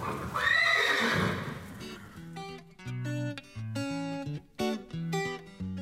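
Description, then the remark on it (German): A horse named Milano gives a loud whinny at the end of his training day, lasting about two seconds, its call rising and falling, then a bright melodic music passage takes over with no talking. “Milano ist mit sich und seinem Training offenbar zufrieden. Deshalb macht er zum Abschluss seines Trainingstags zwar keine Kapriole, aber ein Kompliment.”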